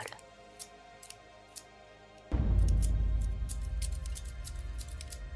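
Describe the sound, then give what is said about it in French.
Sharp snips of kitchen scissors cutting long brown curls of hair sound in short, sparse bursts, then keep clipping rapidly as a sudden deep, heavy rumble swells beneath them and lingers. No one speaks. “Sans hésiter, je coupe les longues boucles brunes qui chutent sur le sol.”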